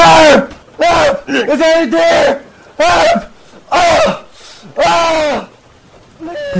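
A man screams frantically in a string of about six loud, strained bursts separated by brief gasping pauses, raw, with no other sound around him.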